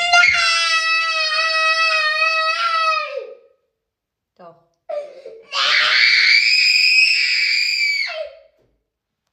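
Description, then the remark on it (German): A toddler lets out two long, piercing, sustained screams at bedtime, with a brief shouted protest in between. The wailing is loud, high-pitched and distressed, like a tantrum cry. “Ähm, wenn das Kind sich nicht mehr zu helfen weiß, dann ähm, wird die Stimme ausgepackt.”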